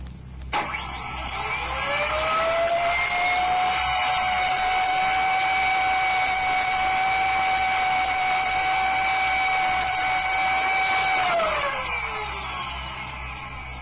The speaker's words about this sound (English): It sounds like you have a, an insane air raid siren under the hood of your car.